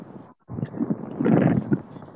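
Strong wind buffets the microphone in heavy, uneven rumbling gusts that swell and roar after a brief lull, loud throughout.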